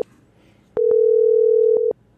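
A telephone ringback tone of an outgoing call placed to a listener: one steady, mid-pitched beep lasting about a second, loud and alone after a brief quiet moment, with no voices.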